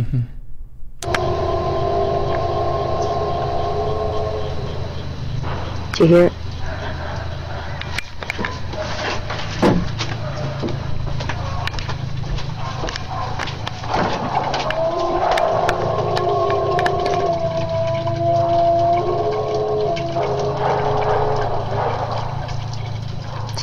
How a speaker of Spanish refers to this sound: Esto es lo que se cree que es uno de los sonidos que produce el Sasquatch.